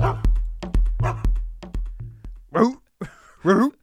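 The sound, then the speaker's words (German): A steady thumping beat with deep bass hits drives the first half, then a dog barks three times in quick succession, loud, falling roughly in time with the rhythm. “Fällt dir auf, dass der Hund zum Beat bellt?”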